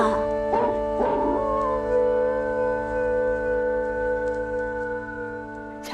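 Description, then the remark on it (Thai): A man howls like a wolf, drawing out one long, steady, wavering tone for several seconds after a couple of short rough bursts at the start, with no talking. “เมื่อพูดจบ เขาก็ได้หาวเป็นครั้งที่สามแล้วก็หอนเหมือนหมาป่า”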